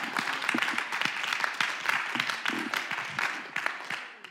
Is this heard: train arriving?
no